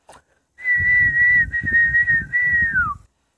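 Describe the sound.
A person whistles a bright, steady birdlike tone imitating three little birds singing, in three sustained phrases, the last gliding downward, over a soft rumbling, fluttering background noise.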